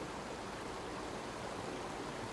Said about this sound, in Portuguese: E eu passei um tempo aqui só escutando o que o riacho tinha para me dizer. E o riacho fala, né? Então, fiquei aqui ouvindo o barulhinho da água, um pouquinho do vento